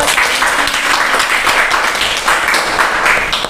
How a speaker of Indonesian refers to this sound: Ya, tepuk tangan dong teman-teman.